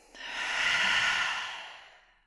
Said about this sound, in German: Jetzt nochmal kurz alle gemeinsam einatmen und ausatmen.